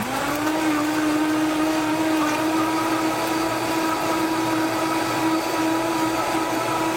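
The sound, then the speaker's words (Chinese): A blender runs steadily, its motor holding a loud, constant whine with a broad grinding roar as it purees fresh vegetables and fruit with ground flaxseed and about a quarter part water into a thick red drink. No one speaks. “那这样就我们就把它 加差不多了，然后再加一些适量的水加进去来打， 水大概是四分之一左右， 还没打已经变红色， 非常营养。”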